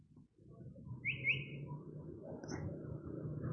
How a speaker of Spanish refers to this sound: Es un mimus. Está copiando, está hablando distintos lenguajes. Calandria, mimus Saturninus, Escúchenla.